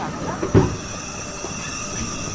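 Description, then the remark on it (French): A bookbinding gilding press, a 'presse portefeuille', runs with a steady mechanical drone and faint high whine, broken by one dull knock early on. A book cover is placed on its moving part, which swings in a pendulum motion. No one speaks. “Alors là devant, on est devant une machine, euh, on est devant une, presse euh, portefeuille.”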